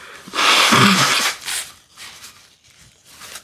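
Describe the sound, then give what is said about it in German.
A loud, breathy sniffle from someone with a cold and an itchy nose: a single rushing nasal inhale lasting about a second, followed by fainter breathy rustling. No one speaks. “Schnief.”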